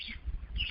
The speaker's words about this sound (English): and I hear the bird chirping.